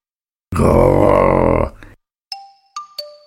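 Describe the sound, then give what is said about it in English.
A cat gives a loud, rough snarl lasting just over a second that breaks off abruptly, followed after a brief pause by a few bright, ringing electronic chime tones as a computer comes on. “He snarled.”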